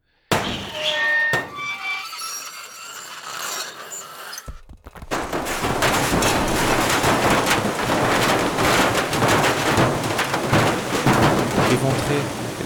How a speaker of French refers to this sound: Dans l'enceinte de la banque, une nouvelle explosion retentit. Cette fois, une citerne se décrocha dans un bruit épouvantable.